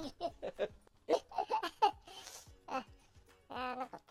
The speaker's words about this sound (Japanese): ちょっとくしゃみ出そう